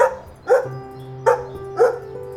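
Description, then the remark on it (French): A dog named Axel yaps nervously at 5:30 on a Saturday morning in Spring, Texas, USA. It gives four sharp, high-pitched barks in quick, uneven succession, with a faint steady hum underneath and no one speaking. “Samedi matin, 5h30, dans la ville de Spring au Texas, aux États-Unis les parents de Gabriel dorment profondément quand leur chien Axel se met à japper nerveusement.”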